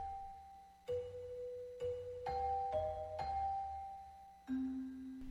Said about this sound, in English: Well, if you're a fan of the podcast, you heard the music, you know it's time for our mystery guest.